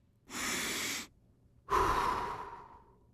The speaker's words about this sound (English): Breathing.